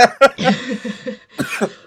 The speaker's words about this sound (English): And um, why am I coughing?